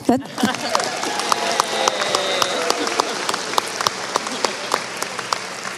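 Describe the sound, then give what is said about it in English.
An audience applauds the graduating class of 2019: many hands clapping in a dense, steady wash that lasts the whole stretch, with sharper individual claps popping out above it and faint cheering mixed in. “We would like to go ahead, you can applaud.”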